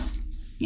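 A single short sneeze, a quick breathy burst of noise that fades into a low voiced tail, moderately loud, with no talking during it.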